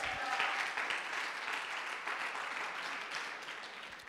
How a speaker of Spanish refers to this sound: Un aplauso para todos los valientes.